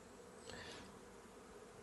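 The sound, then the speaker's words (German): A soft, steady drone of many honeybees at a hive fills the background, with one bee's buzz briefly swelling louder as it passes by. No one speaks. “Ja, also dieses permanente Summen, was wir im Hintergrund hören.”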